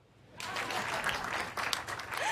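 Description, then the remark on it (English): An audience breaks into applause after a brief quiet moment, clapping for a speaker receiving a B minus in the KCSE exam; a dense, steady patter of many hands clapping that holds at a fairly even loudness to the end, with no talking over it. “And when I sat for the KCSE for a second time, I was able to receive a B minus clap.”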